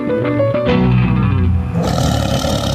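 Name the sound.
tiger roar sound effect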